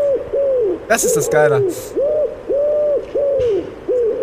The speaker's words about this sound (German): Pass auf, das Lustige ist jetzt eigentlich das, was jetzt kommt. Die scheiß Taube.